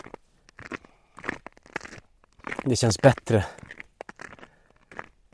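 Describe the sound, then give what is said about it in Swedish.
Steady footsteps crunch through snow on a gravel road by a forest in winter, a regular series of crisp, gritty steps at a walking pace, with a person speaking briefly over them midway. “Nu när det är snö och vinter så går jag inte här så ofta eller springer här så ofta utan jag går ju ofta till gymmet istället.”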